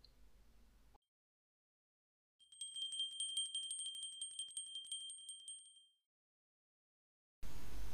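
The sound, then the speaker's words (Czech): A small bell hanging on a door rings in a quick, continuous shimmer for a few seconds, bright and clear with no voices over it, then fades out into silence. “A na dveřích jim tam vysel zvonec. A naší pohádky je konec.”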